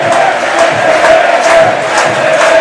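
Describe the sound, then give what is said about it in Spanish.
A large stadium crowd at Castalia chants 'que se besen' in unison during a football match against Málaga, a loud, steady roar of many voices with a rhythmic pulse of stressed syllables repeating roughly twice a second. “y gritos de que se besen, que se besen en Castalia, me imagino que para algún jugador del Málaga y el árbitro, ¿no?”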